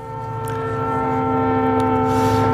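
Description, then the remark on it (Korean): A train whistle blows in one long, unbroken, steady tone over the low rumble of a moving train, loud, swelling slightly as it goes. “오늘 기차 기적 소리와 기차 달리는 소리입니다.”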